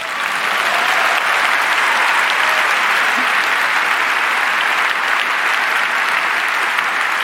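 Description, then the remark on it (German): Steady, dense applause from a crowd for the Bahn (German railway), a loud sustained wash of clapping with no breaks and no voices, holding at an even level for about seven seconds. “Ähm, aber ganz ehrlich, das, das könnte jetzt mal ein Applaus für die Bahn wert sein, weil das ist sportlich.”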